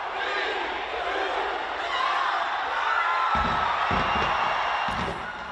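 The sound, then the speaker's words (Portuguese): A large crowd in the streets of Auckland, New Zealand, roars and cheers welcoming the new year 2024 in a dense, continuous wash of voices, steady and loud throughout, with a few deep thumps booming underneath toward the end. “Na última hora, as ruas de Auckland, na Nova Zelândia, foram preenchidas pela multidão que deu as boas-vindas ao novo ano com muita festa e fogo de artifício.”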